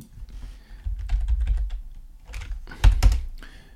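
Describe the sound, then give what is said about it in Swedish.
Rapid clicking keystrokes on a computer keyboard as someone searches for a Danish schlager song, typed in quick uneven bursts with a brief pause in the middle, moderately loud with no voices. “vi börjar väl och wiki-klicka på slager Eurovision Danmark”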